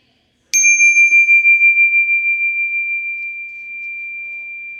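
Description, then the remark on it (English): A single bright bell chime rings out once to mark the start of a breathing exercise and sustains, its clear tone slowly fading over several seconds with a gentle shimmering pulse, heard alone in silence. “Here's the bell to start.”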